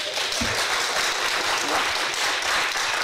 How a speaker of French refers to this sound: Merci. Alors, Là, normalement, ça sera à nous de les applaudir, mais ça aurait beaucoup moins d'allure, en ben, fait. Ben, on est beaucoup moins nombreux.